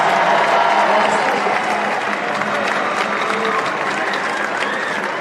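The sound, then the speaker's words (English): Sustained applause from a large audience for President Worthen and Vice President Portman, a dense wash of clapping that stays loud and steady throughout, with faint crowd murmur mixed in. “Uh, first, can we, we get a round of applause for President Worthen, Vice President Portman, for getting me up back in here?”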